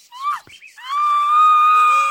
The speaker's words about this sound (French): Nous sommes le 1er avril 1868. Il fait chaud à Marseille. Les cigales chantent. Au numéro 14 de la rue Montaut, une femme crie.